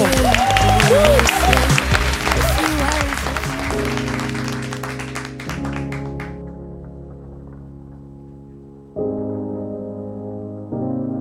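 Dense, loud audience applause with some cheering fills the first few seconds, then fades out as sustained musical chords take over and continue in steady blocks.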